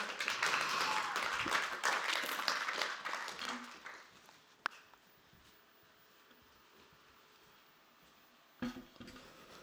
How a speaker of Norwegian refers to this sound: Ja, vi klapper for dem.